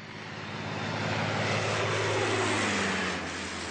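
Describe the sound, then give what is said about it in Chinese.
A red propeller airplane drones past with a steady, buzzing engine roar and low throbbing hum, swelling louder and then holding, its pitch sliding slightly downward near the end. No one speaks. “啊，你看，是红色的飞机。”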